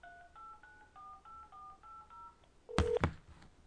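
A quick run of about seven touch-tone beeps as a number is dialed on a landline phone keypad, each a steady dual-pitched tone, followed by a louder, harsher burst of noise near the end.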